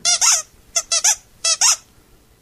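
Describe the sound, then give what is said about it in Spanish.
A squeaky toy doll is squeezed for a dog named Alén Delón, three times in quick pairs, each high, harmonic squeak rising and falling in pitch, loud and clear with no voices over them. “Mirá, Alén Delón, mirá, mirá el muñequito, mirá.”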